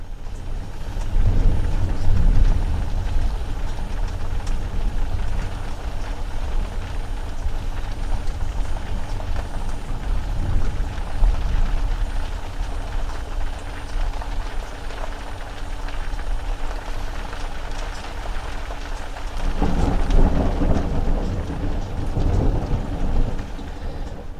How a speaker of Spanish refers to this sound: propio templo de Devoz un día que andaba yo haciendo un vídeo por allí y se desató una gran tormenta que incluso me impidió salir del propio templo donde, donde estaba dentro. Así que nos quedamos allí hasta que pasaron los rayos.